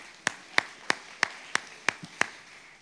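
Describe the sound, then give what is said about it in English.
Seven sharp, even hand claps from an audience giving themselves a round of applause in the morning, at a steady moderate pace, each crisp and bright, with a faint hush between them and no talking. “Give yourselves a round of applause this morning.”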